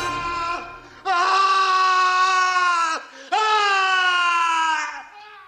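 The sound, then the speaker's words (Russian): A man in a film scene screams in horror after waking to find a horse's head: two long, loud, anguished wails split by a brief gasping break, after a quieter moment at the start. “он просыпается, видит голову лошади, здесь там и музыка подхватывает абсолютно точно так же, и он кричит, и резко удаляющиеся планы, и в конце общий сразу этого дома.”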